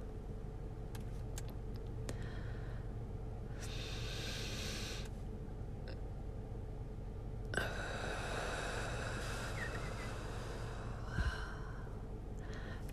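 An audible deep breath drawn in, a pause of held silence, then a long, airy exhale, all over a steady low hum like a car engine.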